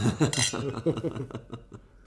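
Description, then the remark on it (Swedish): A quick clink of wine glasses touching in a toast, with a brief bright ring near the start, mixed in with chatter and light laughter. “Eller skål, hörru.”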